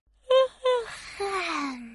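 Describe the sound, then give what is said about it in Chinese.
A voice imitates a dad snoring as he falls asleep on a picnic blanket: two short, quick snorting breaths, then a longer wheezy exhale that slowly drops in pitch and fades out. “爸爸呼噜噜睡着了”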